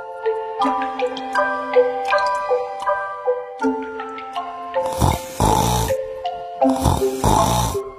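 Gentle, tinkling tune plays throughout, then two loud, rough snoring breaths rasp over the music near the end: Uncle Bear, a bear in a children's story, snoring as he sleeps in.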